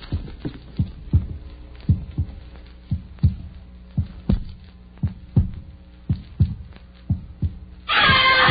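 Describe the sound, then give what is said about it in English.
A woman's steady heartbeat thumps through a stethoscope, low muffled beats in a quick regular rhythm, clear, ending in a burst of scraping rustle as the chestpiece moves. “As far as I can tell, her respiration's normal, pulse just a tiny bit fast, and the reflex is slow, but apparently all right.”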